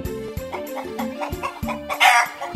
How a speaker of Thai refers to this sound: ลุงดูนี่สิจ๊ะ ดูหน้าของไก่จ้อยสิ ไก่จ้อยอ่ะ โดนไก่ไอ้แดงตีจนเลือดเต็มไปหมดแล้วเนี่ย